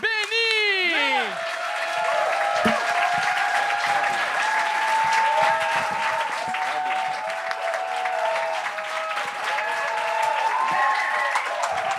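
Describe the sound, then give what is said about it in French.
A crowd at a comedy show applauds loudly and steadily for the full stretch as a performer is introduced, dense clapping mixed with shouts and whistles of cheering, opening with a few rising whoops. “Un autre applaudissement, s'il vous plaît.”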